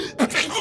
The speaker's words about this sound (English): Bless you.